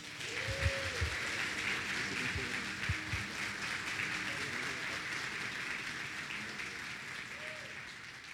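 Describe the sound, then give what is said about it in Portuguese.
Steady audience applause welcoming a speaker fills the whole stretch, a dense wash of many hands clapping at an even level, with a few low thumps and faint murmured voices underneath. “Você pode receber ele com uma salva de palmas?”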